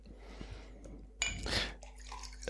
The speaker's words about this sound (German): gießt Rotwein in ein Glas